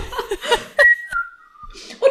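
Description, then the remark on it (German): A man standing at a cactus whistles a short, bright, cheerful melodic phrase, a held note gliding downward for about a second, with soft chuckling and breathy laughter just before and after. “Ah, er pfeift auch noch ein fröhliches Lied.”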